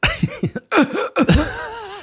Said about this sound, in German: Bitte, huste.